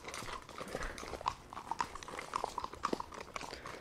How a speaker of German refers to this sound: Und ich bin die meiste Zeit damit beschäftigt, mein Pferd Picasso davon abzuhalten, sich ein paar grüne Blätter irgendwo abzuzupfen.